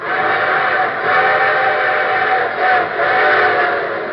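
A steam train whistle sounds loudly and continuously, its harmonic tones swelling and fading over a rumbling engine, with no voices present, opening The Railroad Hour radio show.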